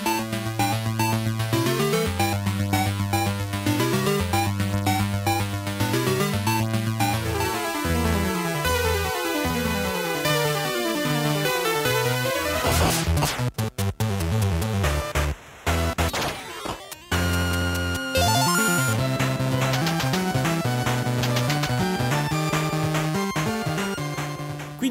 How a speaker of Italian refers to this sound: ora facciamo sentire un, un piccolo estratto di AirType nella versione PC Engine per farvi capire esattamente di cosa sto parlando.